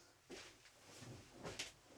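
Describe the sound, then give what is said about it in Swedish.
A dog scratches at a door in a few short, rasping bursts spaced unevenly over two seconds, fairly quiet, with no one speaking. “Och så slutar du knapsa på dörren.”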